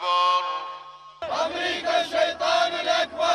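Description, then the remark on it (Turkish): A large crowd at a funeral ceremony in Baghdad, Iraq, for Soleimani and Hashd al-Shaabi members, shouting 'Death to America' slogans in unison, loud, with rhythmic surging chants repeating after a brief sustained tonal opening; many voices blend into a dense roar. “Başkent Bağdat'taki cenaze töreni gövde gösterisine dönüştü. Amerika'ya ölüm sloganları atıldı.”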